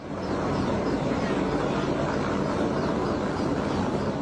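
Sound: helicopter flying overhead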